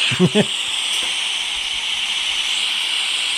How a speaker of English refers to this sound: And obviously, if it rains, which it does in this country, it sounds like this.